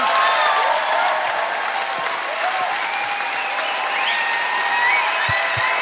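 Sustained audience applause, a dense, steady wash of many hands clapping at an even loudness throughout, with a few faint cheers or whistles mixed in and no talking over it.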